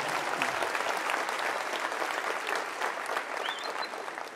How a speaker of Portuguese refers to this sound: Tá, vai, pode aplaudir. Vai, vai, vai, vai.